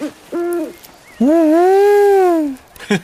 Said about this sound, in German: Der Waldkauz mit vermutlich mehr als 50.000 Paaren, die mit Abstand häufigste Eulenart in Deutschland. Ihren Ruf kennt man aus vielen Schauerfilmen.